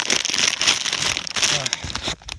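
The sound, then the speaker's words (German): A chip bag crinkles and rustles steadily for about two seconds as someone takes some chips while out in a deciduous forest, a dense, bright crackling that stays fairly loud before stopping abruptly, with a couple of faint rustles after. “ich mir ein paar Chips nehmen muss.”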